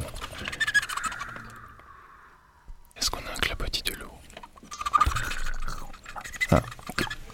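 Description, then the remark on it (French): A radio audience on Radio Grenouille makes soft, breathy mouth noises to mimic water lapping around an island, a layered shushing and clicking texture that swells and fades, with a brief lull midway. “Et pas d'île sans clapotis de l'eau.”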